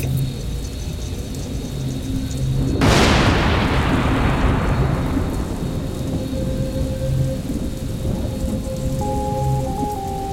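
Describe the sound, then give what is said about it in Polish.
A thunderstorm with steady rain, broken by a sudden loud crack of thunder that rumbles and fades over several seconds while the downpour continues. “Gdy zbierają się chmury burzowe, Odważny człowiek błyskawica, wbrew naturze, przyciąga spadające z nieba śmiertelne strzały.”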